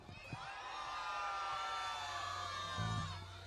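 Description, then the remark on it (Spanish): A crowd of children in a performance audience in Florida shouting and screaming together when the performer asks them to, in a sustained, high-pitched roar that lasts several seconds, loud, with no clear talking over it. “A ver, quiero a ver que peguen un grito. ¿Dónde están los niños?”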